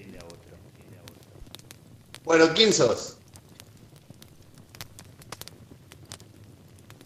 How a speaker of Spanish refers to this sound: El fuego convoca, nos reúne y se cruzan las historias. Crepitar. Un leño enciende a otro.